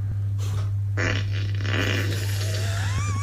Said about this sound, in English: Alexa, do a wet and squeaky fart.